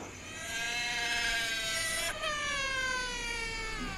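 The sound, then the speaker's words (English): A long, loud, high-pitched wailing cry of a baby caterwauling at night, echoing, drawn out in one sustained tone that briefly breaks and then continues just as strongly. No talking. “Oh, you mean the echoes of a baby caterwauling into the endless depths of night and piercing our ears like clairs?”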